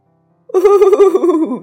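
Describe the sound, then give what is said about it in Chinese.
A single horse neigh lasting just over a second, a loud, quavering whinny that holds a steady mid pitch before sliding down at the end. “马应了一声，可是他心里想：“ 你还是没我快，鸭子。”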